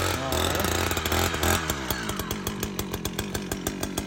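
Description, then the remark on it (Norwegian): A petrol chainsaw runs loud in a forest, revving hard with a dense buzzing roar, then dropping to a rhythmic idle of rapid engine pulses. “Det er liksom forskjellen på de der bensinsagene og de elektriske.”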